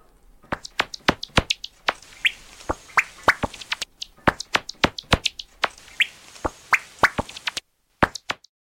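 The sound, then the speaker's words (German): Rapid, irregular series of sharp clicking pops from a noctule bat's calls at night, made audible by a bat detector, loud, with a brief gap near the end before a few more clicks. “Das wäre jetzt das Geschrei oder die Rufe eines Abendseglers, wenn man sie mit einem speziellen Gerät, einem sogenannten Fledermausdetektor, hörbar macht.”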